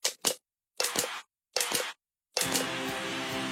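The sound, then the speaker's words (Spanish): A new Ecopack plastic bottle of Cristal water, made 100% recycled and 100% recyclable, crinkles: two quick sharp crackles, two longer crunchy squeezes separated by pauses, then a sustained crackling handling sound. No voices. “Hemos descubierto que detrás del sonido que produce la nueva botella Ecopack 100% reciclada, 100% reciclable de agua cristal, se esconden otros sonidos de sus vidas pasadas.”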